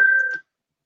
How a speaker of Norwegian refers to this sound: Det var telefonen min.